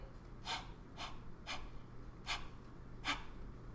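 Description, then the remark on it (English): Five short, forceful puffs of breath blown out in quick succession, with a brief pause before the last two: a person exhaling hard to clear smoke from their mouth. Each is a breathy burst, with no talking. “Is that you coughing? No, it was me trying to get it out because I was like, I feel like I don't have it out.”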